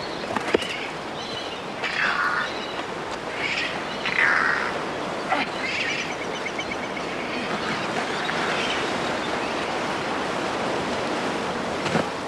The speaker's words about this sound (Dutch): Hier is een vogel.